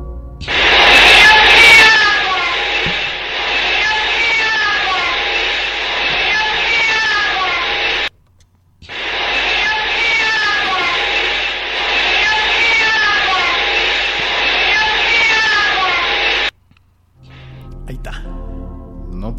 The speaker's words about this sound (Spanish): Eh, es rápida, pero es muy clara. Es una de las psicofonías más claras